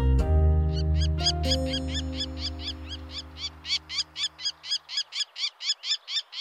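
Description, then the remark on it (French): A male lesser kestrel's courtship call, given to attract females for breeding: a long, rapid series of sharp, raspy notes repeated in steady rhythm, clear, with a low sustained tone underneath at first that fades out. “Les seuls moments en fait où on l'entend, c'est pendant la période des amours, euh, quand le mâle essaye d'attirer des femelles pour la reproduction.”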